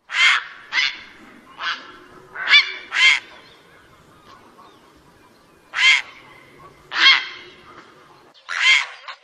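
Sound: grey heron call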